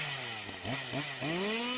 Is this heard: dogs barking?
no